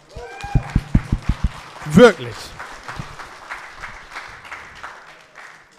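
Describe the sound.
A burst of sharp, rhythmic claps rings out up close, followed by a crowd applauding steadily and fading gradually, with a voice speaking briefly over it.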